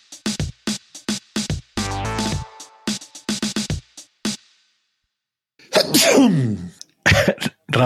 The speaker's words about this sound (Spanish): en vez, de, en vez de mutearte para estornudar, has quitado la cámara.